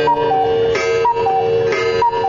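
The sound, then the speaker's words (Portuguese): A cuckoo clock ticks loudly and steadily while a bright two-note cuckoo call repeats about once a second, with no voices. “Esse é o som de um relógio cuco.”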